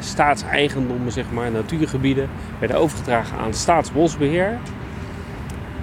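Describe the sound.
A man talks steadily over a constant low rumble of road traffic and railway at the Malieveld in The Hague, with a hum that could include passing trains.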